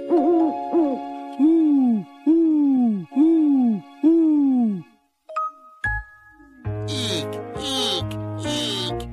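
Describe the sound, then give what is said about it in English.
A voice imitates an owl with a series of about six loud, swooping hoots in a steady rhythm, then gives way to ringing chime and jingling bell tones. “He can go like an owl”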